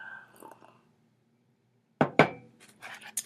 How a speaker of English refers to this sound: i just need a sip of coffee